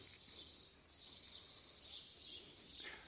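Birds chirp in a steady, overlapping chorus throughout, high and twittering, fairly faint, with no one speaking.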